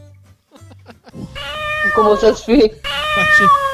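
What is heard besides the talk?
cat meowing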